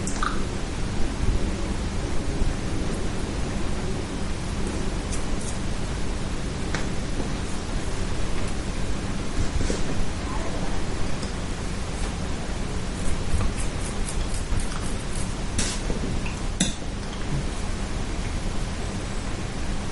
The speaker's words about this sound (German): Es regnet. Das regnet, ne?